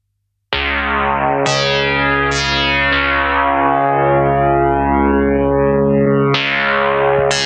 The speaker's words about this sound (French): Et vous allez voir, le mec, il n'y a que de la TB303, il a acheté que ça, c'est tout ce qu'il avait comme argent.